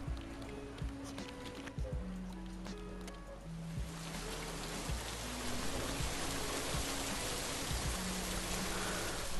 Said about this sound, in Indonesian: Awan mendung yang sedari pagi bergelayut kini mulai menumpahkan isinya. Tetesan demi tetesan hujan mulai turun.